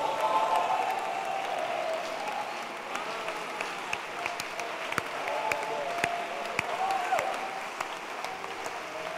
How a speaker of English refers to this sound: Stand to your feet and clap your hands for Jesus.